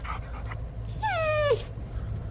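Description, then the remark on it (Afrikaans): A dog riding in a car lets out a single high, drawn-out whimper lasting about half a second, its pitch sliding slightly downward, heard clearly over a steady low engine rumble. “Gelukkig verstaan jy hond Afrikaans.”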